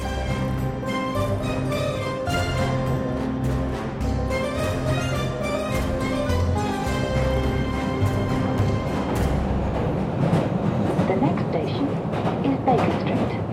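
Inside an underground metro station, a train rumbles and hums loudly, its roar swelling toward the end as it passes, with station chatter and echoing ambience underneath.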